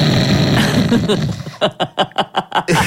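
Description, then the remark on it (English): A voice imitates a sleeping woman snoring: a long, raspy, rattling breath, then a quick run of about six short, rhythmic snorting bursts, loud and alone. “I'm like, this bitch is sleeping.”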